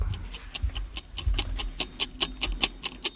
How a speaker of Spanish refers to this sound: unos engranajes que no tendrán más remedio que girar. Unas ruedas dentadas que chocarán inevitablemente unas con otras, hasta que el tiempo lo permita, como un corazón que se llena y vacía de sangre hasta que deja de latir.